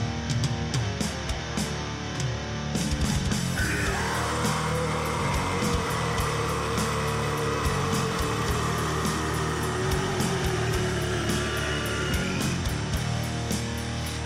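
sound effect, guitar riff

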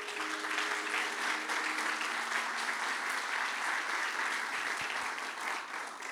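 crowd, audience applauding

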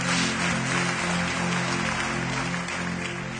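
crowd, audience applauding

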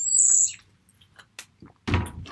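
bird, birds chirping loudly outside

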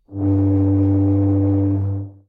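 signal or alarm, foghorn blast

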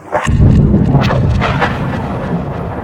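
nature, clap of thunder

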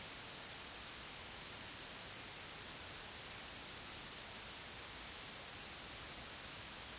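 sound effect, white noise

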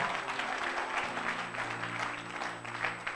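crowd, audience applauding and cheering

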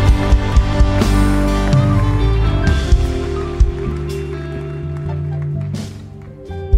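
crowd, audience applauding

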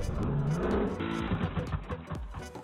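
vehicle, snowmobile engine revving

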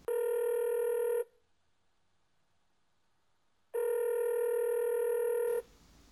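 signal or alarm, telephone dialing tones

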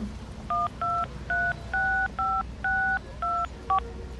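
signal or alarm, telephone number being dialed

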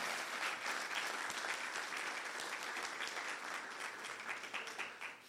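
crowd, loud audience applause

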